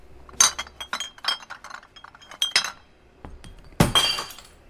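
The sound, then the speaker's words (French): Glass alcohol bottles emptied into a nearly empty recycling bin in a quiet town, a rapid run of clinks and clatters followed by a louder crash of glass near the end, with no one talking. “C'est bizarre, mais dans cette ville vidée de tous ces bruits, je me sens assez gênée de vider toutes ces bouteilles d'alcool.”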